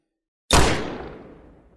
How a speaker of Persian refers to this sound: صدای گلوله ناخداگاه باعث شد سرعت فرار دخترها بیشترم بشه.